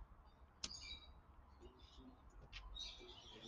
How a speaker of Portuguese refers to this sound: Agora todos os pássaros estão a cantar. Já pronto, não sei se estão a ouvir, se não devem estar a ouvir, é capaz. Passarinhos. Estamos à janela, normal está acontecendo, não é? Passarinhos.